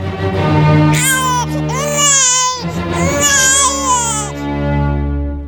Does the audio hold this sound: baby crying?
yes